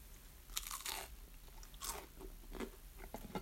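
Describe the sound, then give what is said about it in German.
Crunching of someone chewing crunchy muesli, several bursts of crisp, bright crackles at an uneven pace, loud with no talking. “deswegen esse ich einfach heute Müsli und Brot.”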